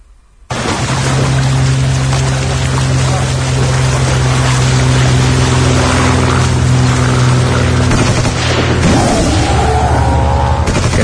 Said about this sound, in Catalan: que sentiu és en King Kong i intentant atrapar aquestes naus que, que volen en la careta de, de Sitges eh, que és tan característica